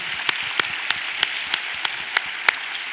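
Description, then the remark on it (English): A crowd applauds itself after being asked to give themselves a big hand, in a dense, steady wash of clapping, with sharper claps standing out at a regular rhythm of about three per second. No one speaks. “Give yourself a big hand.”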